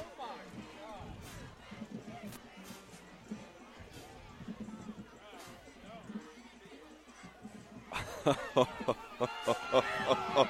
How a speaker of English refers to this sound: Uh, and you can hear the uh, Handley faithful uh, around us and uh, in the stands here, not real happy with that call.